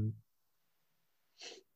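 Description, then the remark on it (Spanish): A single sharp, short sneeze bursts out near the end, after a brief low vocal fragment at the start and a stretch of near silence. “Salud.”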